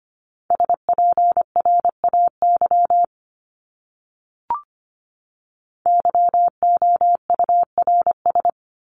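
Morse code beeps at a brisk 25 words per minute, a single steady mid-pitched tone keyed into short and long pulses spelling out common English words, in two runs separated by a quiet pause with a brief click.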